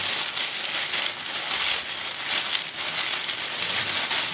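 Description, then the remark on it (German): Continuous dry crinkling and rustling of stiff, particularly hard foley material held in both hands, bright and hissy, with irregular swells of crackle that mimic a child running through a cornfield. No voices. “Man kann es das ist jetzt besonders hartes, das kann man dafür nehmen, wenn ein Kind irgendwie durch so ein Maisfeld läuft.”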